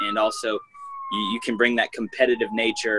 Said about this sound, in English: Sorry for the sirens in the background. I'm not really sure what's going on.